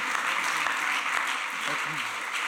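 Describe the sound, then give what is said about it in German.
Sustained applause from an audience for guests about to speak about depression on a couch on stage, a dense steady clatter of many hands clapping at once, with a few faint voices mixed in beneath it. “Und lass uns äh, ihnen zuerst einmal einfach einen großen Applaus geben, weil sie den Mut haben, heute Abend auf dieser Couch da oben zu reden.”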